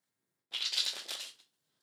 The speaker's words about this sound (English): Tune in. Listen to the sound of the cards being shuffled. This is how you're going to connect to them.